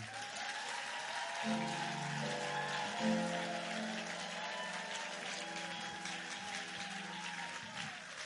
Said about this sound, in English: Let's separate those who are clapping from those who are not clapping.